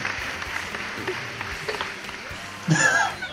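Steady, crackling applause from a group of people clapping together, holding at a moderate level before swelling into a louder burst near the end.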